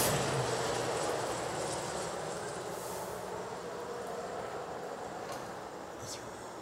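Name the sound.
helicopter flying overhead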